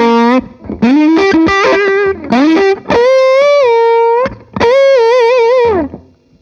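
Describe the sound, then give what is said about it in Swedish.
Fuzz-distorted electric guitar played through a Fuzz Face pedal, playing a short melodic phrase of sustained, bending notes with a thick, rounded, saturated tone. The notes are loud and stand alone, with brief gaps between phrases and no talking. “Jag tänkte också att ni eh, ska få höra skillnaden då mot en tonebender mot en, mot en crybaby. Eller vad säger inte crybaby? Fuzzface.”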